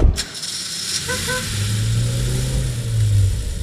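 A car engine rumbles, its low drone climbing steadily as it revs for a couple of seconds before easing off, with no voices present.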